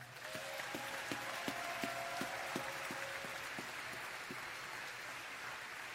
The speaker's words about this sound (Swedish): Vi ger dem en applåd.